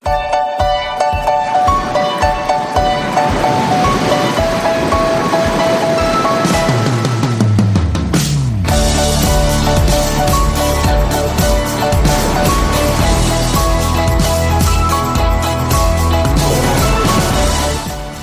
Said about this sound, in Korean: 음악 소리와 함께 파도 소리 들리시죠? 저 멀리 북태평양 해안선 옆구리를 툭 치고 한다음에 달려온 것 같은 시원한 파도 소리. 뭐선 일이고. 비치볼처럼 통통거리는 이 신나는 건반 소리. 또 뭐선 일이고.